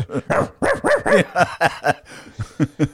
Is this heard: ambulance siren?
no